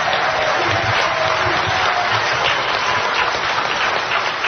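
A crowd applauds an award recipient steadily for several seconds, a dense, even wash of clapping hands at a constant loud level, with no voices standing out.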